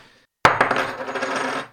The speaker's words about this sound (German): Den lasse ich jetzt mal fallen. Ziemlich schwer, die Münze. Oh, das klingt großartig.